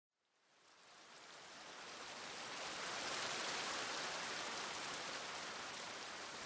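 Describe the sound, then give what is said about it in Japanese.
Steady rain falling in Amagi village fades in over the first couple of seconds, then settles into a dense, continuous hiss of falling drops with no talking, fairly loud. “また雨かそうだよなここに来るなら傘を持ってこなきゃいけなかったんだ”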